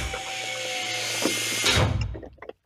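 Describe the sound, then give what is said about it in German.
A door is pushed shut: a steady rushing, scraping noise builds for a couple of seconds, ends in a soft bump as it closes, then near silence. “Tür ist wieder zu.”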